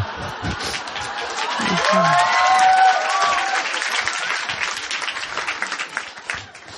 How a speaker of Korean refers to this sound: 여기가 뭐 이렇게 박수를 쳐요.